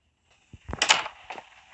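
A door swings shut with a low thud followed by a bright rattling latch, then a softer second knock as it settles; moderately loud, with no voices.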